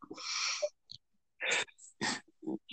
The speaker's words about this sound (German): Genau, im Hintergrund hört ein kleines Baby